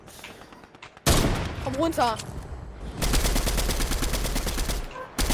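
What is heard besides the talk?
video game gunfire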